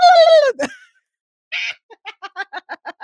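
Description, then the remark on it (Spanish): A voice imitates a turkey gobble: a drawn-out descending call, a short pause, then a quick, loud burst of about eight rhythmic, warbling clucks, with no other talk. “un pavo. Cada vez que pasa un estadounidense va a hacer...”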